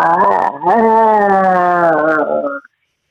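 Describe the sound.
A single person imitates a tiger roar: one loud, drawn-out vocal growl-howl lasting a couple of seconds with a brief break near the start, then cutting off into silence.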